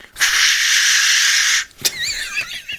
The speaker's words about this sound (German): Es ist dieses Geräusch, wenn, der, wenn, der, wenn die Torsionskraft des, des Gummizugs sich löst. und das pfeifende Rauschen, während der brennende Fireslayer auf die äh, Luftelfen zufliegt.